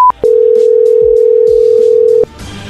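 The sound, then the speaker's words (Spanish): A brief dialing beep as a phone call is placed to another number, then a single loud, steady telephone ring tone held for about two seconds, cutting off to a quiet line hiss. “¿No tienes otro número para llamarle?”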